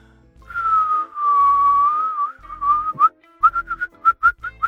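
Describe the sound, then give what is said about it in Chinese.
Someone whistles a tune: a long wavering held note that slides around, then a string of short, bright chirpy notes in a bouncy rhythm. No one speaks. “你你吹口哨干什么？”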